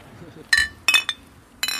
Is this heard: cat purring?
no